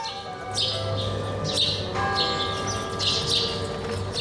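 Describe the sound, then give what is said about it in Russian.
Church bells ring steadily from churches all over a town, repeated strikes overlapping into a sustained, shimmering wash of tones, with brighter chimes cutting through every second or so and no voices. “Слышите, каким многоголосым был наш город? Отовсюду несся колокольный звон.”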